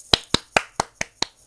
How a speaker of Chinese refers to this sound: 但是我真的是觉得哈，嗯，在这件事情上，我们要跟我们的那个台湾的民众啊拍拍手，来拍拍手。